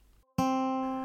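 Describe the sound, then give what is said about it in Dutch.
A single plucked string rings out after a brief quiet moment, a sharp attack followed by a steady, bright tone that sustains and fades only slightly. No one speaks. “Dus de ene,”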